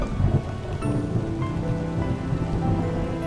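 Light rain falls on an asphalt road in a steady, even patter, a soft continuous hiss of drops with faint low rumbling underneath; no voices are heard.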